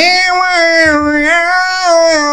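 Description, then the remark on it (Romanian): An adult voice imitates a crying baby with one continuous, loud, close wail that wavers slightly in pitch for a couple of seconds, with no other sounds around it. “Și și opa, stai mă, să nu plânge, să cântă.”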